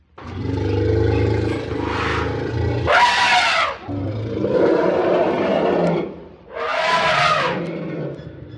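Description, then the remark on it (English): Wild elephants trumpeting: two loud, brassy blasts rise out of a continuous deep rumbling and groaning, powerful, with no one talking. “And wild elephants.”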